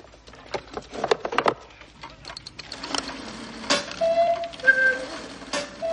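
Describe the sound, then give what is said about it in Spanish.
A cuckoo clock's mechanism clicks and ratchets as its hands are turned by hand, the clock set on a fireplace, then a few brief, hollow cuckoo tones sound as the mechanical bird comes out, over faint background noise. “Karen lo pone sobre una chimenea y mueve las manillas hasta que suena.”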